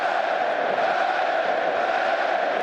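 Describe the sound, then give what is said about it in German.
A large stadium crowd doing the wave roars and cheers in a dense, continuous wall of noise, holding steady and loud throughout the short stretch with no individual voices standing out. “So, jetzt ist aber genug mit der Welle hier.”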